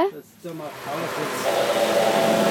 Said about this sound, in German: Jetzt haben sie angefangen, den Zug zu putzen. Über 10 Minuten geht das hier. Ja, es sind so zwei und vorne auch noch eine. Und ich putze jetzt den Zug. Und jetzt ist die Scheibe vorne schon ganz nass.